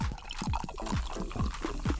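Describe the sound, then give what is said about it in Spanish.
A drink glugs steadily out of a bottle being opened, about seven rapid gulping pulses in a row, fairly loud, with no voices over it. “Destapando algo.”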